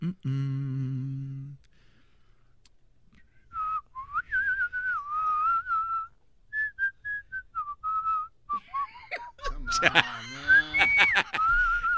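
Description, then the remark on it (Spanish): A person whistles a wandering, unsteady melody in short phrases with brief pauses, clear, after an opening low honk and ending in a louder, noisy jumble of sounds. “el único locutor que se pone chiflada.”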